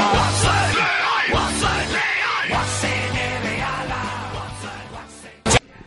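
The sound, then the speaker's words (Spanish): A crowd of football supporters at their home ground, Anoeta, roars their battle cry "Churi Urdiña", a loud, sustained rallying chant in unison, voices rising and falling together before a sudden sharp burst near the end. “Guasen, somos la afición del mejor equipo, aquí en nuestra casa tenemos este grito.”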